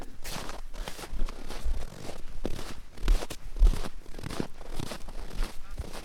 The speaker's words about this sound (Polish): kroki na śniegu. Muszę przyznać, że jest to dźwięk, który ja bardzo lubię.